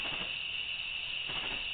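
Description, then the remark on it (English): A steady, high-pitched cricket chirping trills on without pause, fairly quiet and alone with no voices, like crickets filling an empty night. “That's the cricket. The cricket. The cricket. Cricket.”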